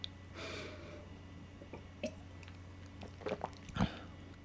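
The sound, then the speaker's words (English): A quiet sip of a whiskey blend, brought down with a little water to about 84 proof, with a soft slurp, followed by scattered lip smacks and small mouth clicks as it's tasted, with no one talking. “I'm going to take a little taste.”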